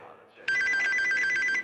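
A telephone rings with a loud, steady, high-pitched electronic trill lasting just over a second, starting abruptly after a short stretch of quiet low murmur.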